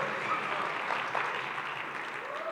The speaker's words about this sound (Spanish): Dale aquí que un aplauso